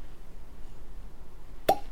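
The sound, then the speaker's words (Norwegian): A single crisp pop of a cork pulled from a single-cask whisky bottle of 52.7% strength after the foil is removed, sharp, ringing out briefly after a stretch of quiet. “Og så skal vi se da om korken kommer.”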